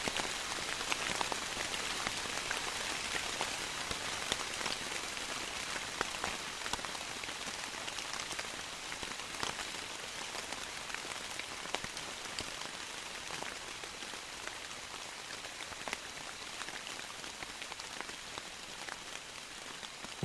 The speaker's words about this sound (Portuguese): a chuva vai se transformando. Dando pequenas tréguas e se intensificando. Os pingos caem nas copas das árvores.